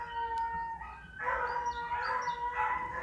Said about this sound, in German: Hören wir an den Hunden. Die Hunde weinen auch, ich weiß nicht, ob ihr es hört. Ja, man hört's.